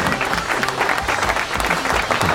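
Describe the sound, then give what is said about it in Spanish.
A crowd claps steadily for a couple of seconds, a dense, continuous patter of many hands at an even, fairly loud level with no pauses. “Un aplauso para el poderoso San.”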